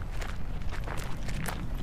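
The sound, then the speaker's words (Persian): Footsteps walk at a steady pace as people who have got out of a car head toward someone standing by a car in the desert, a run of crisp, evenly spaced steps over a constant low rumble. Nobody speaks. “از ماشین پیاده میشن و به سمت نوری میرن”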